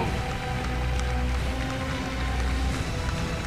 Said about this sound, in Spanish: Usted que está presente aquí, Dele gloria a Dios porque ha venido libremente a buscar de nuestro Señor Jesucristo. Dele fuerte palmas a Dios, pero con todo el corazón.